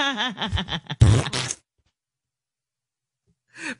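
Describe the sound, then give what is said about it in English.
During a hearing, a brief voice fragment gives way to a loud, low, raspy fart lasting about half a second, followed by silence and a faint noise near the end. “He doesn't even acknowledge that yeah. he just farted.”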